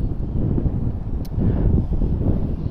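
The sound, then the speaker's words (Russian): Wind buffets the microphone in a steady, loud low-frequency rumble with gusty surges, filling the whole stretch with no other clear sounds. “Сейчас опять ветер, ветер, ветер, ветер дует.”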